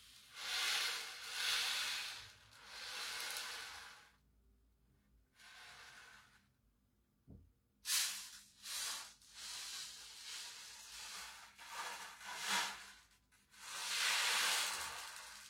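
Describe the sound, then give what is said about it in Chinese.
An ocean drum, sold as a 'sea wave drum' and used as an ASMR trigger, rocked back and forth, its beads producing loud, harsh swells of rushing hiss. Long washes give way to a quiet pause, then a run of shorter, choppier surges. No one speaks. “我买的时候它写的是海浪鼓，可是我真的不觉得像海浪的声音，我感觉巨吵。”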